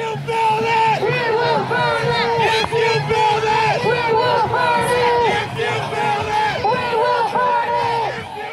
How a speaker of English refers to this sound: At one point, the entire crowd, seemingly the entire crowd, was chanting, If you build it, we will burn it, which seems yeah, almost like a thousand people.